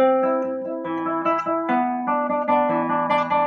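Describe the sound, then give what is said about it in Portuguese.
Plucked string notes E and B ring out and overlap, with each new pluck sounding while earlier notes still sustain, forming a clear two-note harmony with no voices. “A próxima nota é o Ré, mas eu preciso ouvir o Mi soando junto com o Si.”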